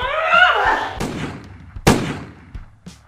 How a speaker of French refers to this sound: sans le moindre état d'âme, Talo attira deux nouvelles balles qui frappèrent Amadricus en pleine poitrine et le projetèrent contre le mur.